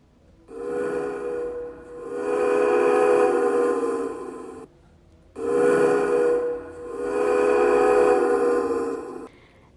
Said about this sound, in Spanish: El tren silbó y una densa nube de vapor se extendió sobre la bestia de hierro.